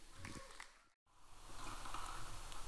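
An audience claps steadily to welcome one of the audience's elders to speak at a morning service, a dense wash of applause that rises after a brief silence and stays fairly loud, with a bit of indistinct voice beforehand.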